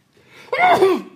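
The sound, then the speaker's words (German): A single sneeze: a short, building breath in, then a sudden loud, voiced burst that trails off within about half a second. No talking around it. “Gesundheit!”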